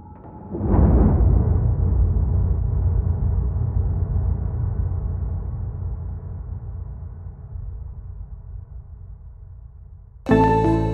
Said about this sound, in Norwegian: Men før de får rigget seg til, glimter et skarpt lys i mørket. Etterfulgt av et digert smell.